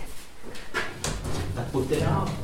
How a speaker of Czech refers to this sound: Ano, otevíráme tady jedny dveře prosklené